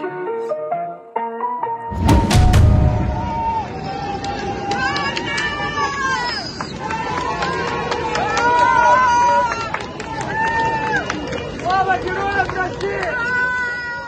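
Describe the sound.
A large crowd of Rostov residents cheers and chants the name Wagner in loud, rhythmic unison as Wagner fighters drive out of the city, also shouting "long live the heroes". Many voices rise and repeat together after a brief thump, with scattered shouts layered over the roar.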